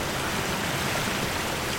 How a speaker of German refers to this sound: Ich sehe ein ganz großes, rundes Becken, wo aus kleinen Öffnungen Wasser rausfließt. Was du jetzt hier siehst, das hier, das ist das Endprodukt. Jetzt ist Schluss mit der Reinigung. Das fließt jetzt in die Spree zurück.